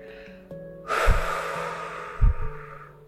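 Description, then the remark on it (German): A long, airy exhale through the mouth, emptying the belly during a guided breathing exercise, starts about a second in and fades over two seconds, with soft music humming underneath and a couple of low thumps. “Und wir atmen gemeinsam aus.”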